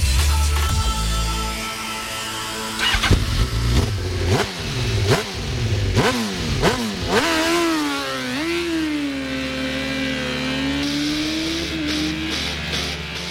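Motorcycle engines rev hard, pitch climbing in repeated surges like quick gear changes, then settling into a steady high drone. No one speaks.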